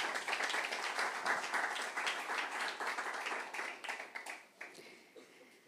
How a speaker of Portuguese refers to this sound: Dê um aplauso aí ao Senhor, irmãos.